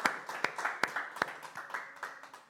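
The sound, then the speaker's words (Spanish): An audience applauds for the Lord, with many hands clapping in a steady, uneven patter and a few sharper claps standing out over about two and a half seconds. “fuerte aplauso para nuestro Señor.”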